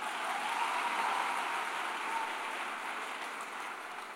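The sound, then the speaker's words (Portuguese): A crowd claps steadily for several seconds, a dense, even wash of applause that holds at a constant level without cheers or voices. “Bate só mais um pouquinho, minha gente.”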